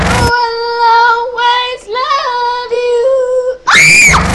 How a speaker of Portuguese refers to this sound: uma menina tentando cantar, uma criancinha tentando cantar essa música. e ela não alcança as notas e ela começa a ficar brava, começa a ficar vermelha, começa a gritar no microfone.